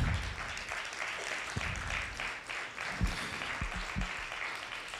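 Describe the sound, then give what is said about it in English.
A church crowd applauds after a sermon line about mothers' sacrifice, a dense, even wash of many hands clapping at once for the full stretch with no talking over it. “You can clap.”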